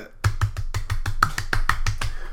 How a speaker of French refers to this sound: Il est déjà après son clavier, tu le vois.